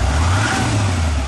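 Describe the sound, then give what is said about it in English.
The Cummins V8 turbo diesel engine of a new 2016 Nissan Titan XD pickup truck, 310 horsepower, revs loudly and steadily, a deep sustained rumble with a rising mechanical whine, no voices present. “This is the sound of the Titan flexing its 310 horsepower muscle”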